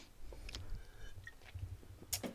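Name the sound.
sipping a drink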